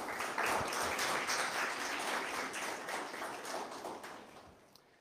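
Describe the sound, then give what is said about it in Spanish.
A crowd applauds with dense, steady clapping that stays strong for several seconds, then gradually thins and fades out toward the end. “Por lo cual les pido por favor un fuerte aplauso”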